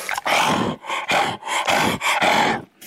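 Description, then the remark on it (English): A gorilla grunts and vocalizes, with a series of about six loud, breathy, rasping huffs in a steady rhythm, separated by brief pauses, and no talking. “Maybe your memory goes back even further to his show, The Sounds of Science, where his guests included Koko the gorilla.”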